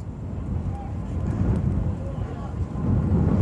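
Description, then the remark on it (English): Strong wind of at least 30 miles an hour buffets the microphone at a baseball game in Hastings on a 79-degree day, a continuous, heavy low rumble that swells and gusts throughout, with faint, muffled voices buried beneath the roar. “Wow, it's been a long time since we've played a baseball game in these windy conditions the way we have it here today.”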